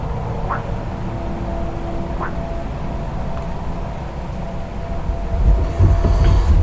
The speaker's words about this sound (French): Bon, c'était tentative de grenouille, euh, mais c'était plutôt chien au loin et passage de poids lourd au loin sur la nationale.